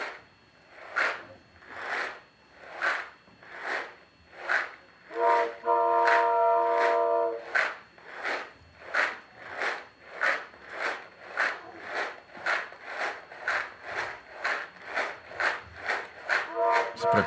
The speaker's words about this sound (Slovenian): tak zvok je, ko si na vlaku.